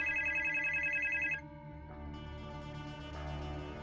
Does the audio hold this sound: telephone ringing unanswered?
yes